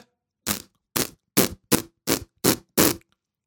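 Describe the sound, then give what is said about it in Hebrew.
Seven short, breathy sputters of air held in the cheeks and pushed out through pressed lips that resist it, each a noisy puff a fraction of a second long, repeated at a steady uneven pace with silence between and no talking. “בשביל להבין מה הכוונה הזאת שאני אומר התנגדות, תנסו פשוט לסגור את השפתיים ולעשות סאונד של פצפוץ.”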